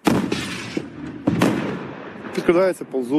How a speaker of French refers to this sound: Les frappes sont constantes, on reconnaît le calibre de l'obus rien qu'au son.